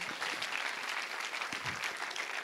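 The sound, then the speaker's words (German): An audience claps steadily for a couple of seconds in applause for Jesus, a dense, continuous patter of many hands, with no voices standing out. “gebt Jesus mal einen Applaus”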